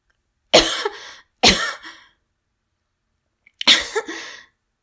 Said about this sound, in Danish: men så begyndte hun at hoste.